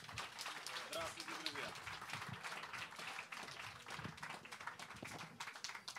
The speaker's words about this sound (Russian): Э, диалог, который называется «Около футбола», и я предлагаю, приглашаю его участников сюда к нам. Главный редактор Sports.ru Юрий Дудь и петербургский журналист Фонтанка Федор Погорелов. Аплодисмент.